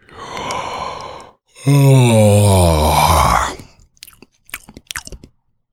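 A forest goblin gives a deep, drawn-out yawn, loud: a breathy inhale, then a long groaning voiced exhale that sags in pitch, trailing off into a few soft mouth smacks and clicks.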